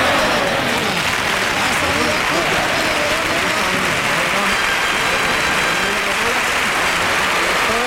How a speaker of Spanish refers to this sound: Echa, echa humo las palmas, ¿eh? Porque está, están picados unos con otros.